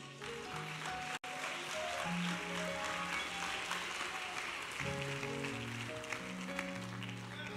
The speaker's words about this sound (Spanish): Un aplauso a Jesús.